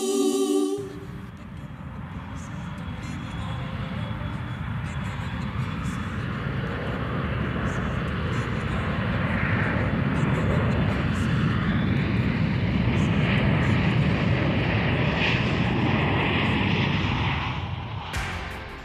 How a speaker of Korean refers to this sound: 이게 이제 뮤직비디오에서도 비행기가 이륙하는 장면이 예, 처음이잖아요.